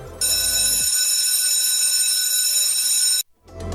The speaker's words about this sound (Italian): E, ed è proprio la campanella della scuola